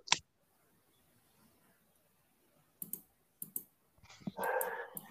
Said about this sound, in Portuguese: e os cachorro tá latindo.